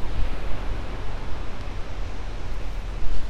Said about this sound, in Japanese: 聞こえるかな波の音ですね今ここはというとサーフィンやってるあウィンドサーフィンもやってるねそうここは湘南湘南ってでもね材木座ですね